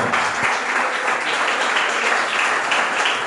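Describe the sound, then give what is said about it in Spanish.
An audience breaks into sustained applause for the Lord, a dense wash of many hands clapping at a steady, loud level throughout, with no voices standing out. “Denle la aplauso al Señor.”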